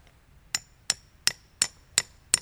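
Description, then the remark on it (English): Six light, evenly spaced taps of a small hammer struck with the side of its head into a tree, each a short bright click with a faint ring, at a steady pace with quiet background between them. “for some reason he's using the side of the hammer.”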